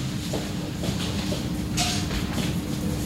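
A single short, breathy sneeze bursts out over a steady low rumbling background, then the hum carries on with no talking.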